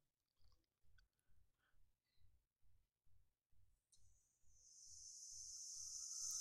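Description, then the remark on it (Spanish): In a published music track by an unnamed group, a steady, thumping low beat pulses along, then a loud, sustained cicada buzz swells in partway through and keeps growing over the rhythm, with no voices. “Obviamente con el río de la cigarra al principio,”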